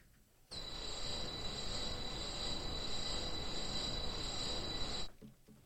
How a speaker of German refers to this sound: Was fällt dir bei diesem Ton ein? Klingt natürlich wie, wie ein Stahlwerk, beziehungsweise Schwerindustrie. Und so ad hoc fällt mir ein, ich hätte es nicht gerne irgendwie direkt neben meinem Schlafzimmer.